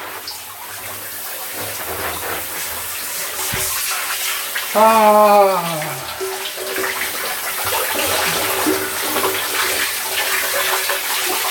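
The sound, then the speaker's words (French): Steady hiss of hot shower water spraying under pressure runs throughout, with a man's brief drawn-out vocal exclamation rising over it midway. “Dans la douche, en pression.”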